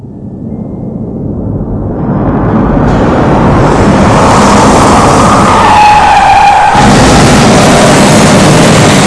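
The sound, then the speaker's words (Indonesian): A car travelling at up to 90 km roars loudly and its tires screech in a long skid as the driver swerves suddenly to avoid a woman crossing and loses control. A high squeal rises over the engine noise for several seconds before the rumble continues, intense. “Mobil pun tidak dapat dikendalikan oleh Mulyono.”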